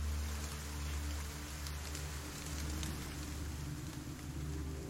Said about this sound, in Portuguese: A chuva começa a apertar mais.